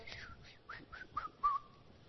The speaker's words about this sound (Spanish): Ni el silbido me sale ya.